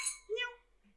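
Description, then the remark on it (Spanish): A bright clink of glasses touching in a toast, with a ringing tone that fades quickly; a single contact followed by a faint low murmur. “Ah, salud. salud. Another cheers.”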